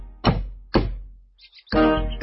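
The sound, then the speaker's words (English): Knocking on a little front door, as sung in the picture book song Go Away, Mr. Wolf: two heavy, hollow thuds about half a second apart, each ringing out briefly, followed by a louder, longer thump. No voices are heard. “Who's that knocking out our little front door?”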